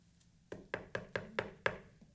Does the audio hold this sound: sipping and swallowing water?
no